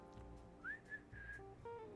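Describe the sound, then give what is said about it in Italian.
Someone whistles a short, birdlike phrase imitating a nightingale: a quick upward-sliding chirp followed by a few bright sustained notes, clear over a low steady background hum. “Mm, faccio un fischietto.”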